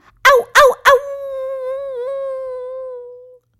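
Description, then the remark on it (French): Children shouting together at a pond imitate wolves: three quick, sharp yips, then one long, wavering howl held for a couple of seconds, loud, with nothing else around it. “Ils s'amusent à crier ensemble. On est les loups de l'étang du loup.”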